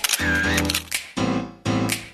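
Camera shutter clicks in sharp bursts, a few in quick succession, sounding loud over a sustained, buzzy electronic tone. No one speaks.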